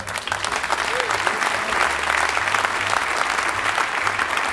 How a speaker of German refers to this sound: So war unser Charlie. Wenn er uns im Himmel zuhört, Applaus für Charlie, oder?